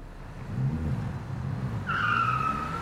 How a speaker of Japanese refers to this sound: 1964年9月名神高速道路トヨタの新型車コロナ RT40 がテレビカメラの前で激走しているこの3代目の小型セダンはトヨタの新しい品質管理体制で作られた最初の車両で信頼できる車として宣伝されていた